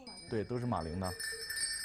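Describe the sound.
Tibetan horse bells in Litang, China, give a steady, high, shimmering jingle throughout, with a voice speaking briefly over the first half before the ringing carries on alone.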